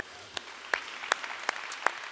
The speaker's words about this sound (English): Can we give the Lord a big hand clap, would you?